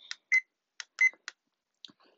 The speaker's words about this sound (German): Aber ihr wollt nicht den Ton hören, wie dieser Wecker piepst. Es ist schrecklich. Das könnte ich jetzt eigentlich mal vorspielen.